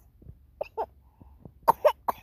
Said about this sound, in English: That's right, cough it out, cough it out. And I get it. Look at you fake coughing. He's learned how to fake cough.